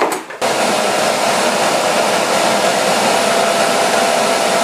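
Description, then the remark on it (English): A vacuum cleaner switches on after a brief moment and runs with a loud, steady roar and a faint whine, continuing evenly to the end with no one talking. “Just a quick vacuum?”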